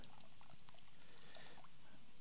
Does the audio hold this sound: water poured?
yes